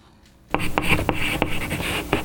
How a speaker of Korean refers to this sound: 음, 이게 지금 분필로 칠판에, 네, 선생님이 글씨 쓰는 소리예요. 오늘 보물 소리입니다.